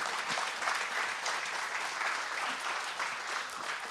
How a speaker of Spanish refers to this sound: Den un aplauso al Señor, hermanos, claro que sí.